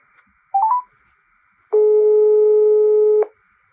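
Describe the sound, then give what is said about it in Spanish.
A quick run of three rising electronic beeps, like keypad dialing, followed by a steady telephone tone lasting about a second and a half, clear with no voices, as a phone call is placed for an interview. “El director de Jazz Madrid, Luis Martín, está tan ocupado estos días que me atiende por teléfono entre asunto y asunto.”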